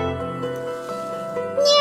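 A blue-eyed cat lying on a windowsill meows in one drawn-out, tonal call that holds steady and then rises sharply in pitch and loudness at the end, with no talking.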